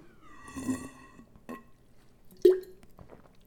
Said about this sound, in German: Ah, ich habe hier meine kleine Wasserflasche. Wo ich, trinke ja wieder so viel Wasser, weil ich stay hydrated. Hm. Ah, muss mal so ein bisschen die Kehle befeuchten, gerade bevor ich jetzt hier weiter in den Diskurs mit euch gehe.